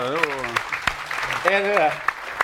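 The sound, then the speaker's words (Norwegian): Scattered audience applause, sharp irregular claps breaking through while a man keeps talking over them at a steady, fairly loud level. “Og 11, det er lov å klappe, da.”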